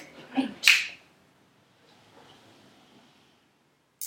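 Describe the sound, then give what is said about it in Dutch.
A dog gives two quick, sharp barks in close succession, then falls quiet, leaving only faint background hiss and a brief click at the end. “U gaat onder klappen. blaffen.”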